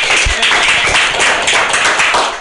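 A crowd at a comedy roast of Jesus claps steadily to welcome him, a dense, even wash of many hands with no gaps, holding at a fairly loud level for the whole couple of seconds with no voices over it.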